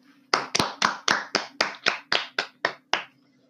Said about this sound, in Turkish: Black'e bir alkış.